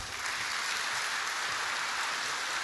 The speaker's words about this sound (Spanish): Muchísimas gracias a los dos. Un aplauso para ellos.